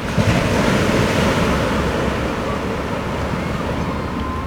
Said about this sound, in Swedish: Det hörs lång väg hur det dånar och vrålar. Ibland bara suckar det i tunga vågor som rullar mot klipporna.